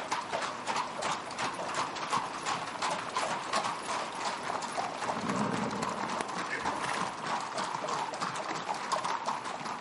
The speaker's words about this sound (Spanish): sale del castillo a caballo seguido por Debeir y su escolta